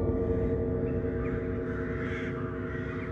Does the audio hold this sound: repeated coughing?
no